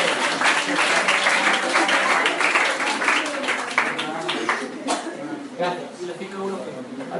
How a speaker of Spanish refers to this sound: Gracias, un aplauso